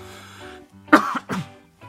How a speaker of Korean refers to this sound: 어, 장기침이 아, 잠깐 나왔어 죄송합니다.